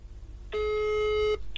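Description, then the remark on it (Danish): A single steady telephone ringback tone, heard while placing a phone call, sounds for under a second, loud and clear over a low background hum, then cuts off abruptly. “Så nu ringer vi sgu lige til Rikke.”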